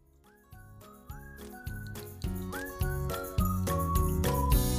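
A bright, upbeat whistled theme jingle with sliding notes rides over a bouncy, stepping bass line, building steadily louder across a few seconds of instrumental music with no voices.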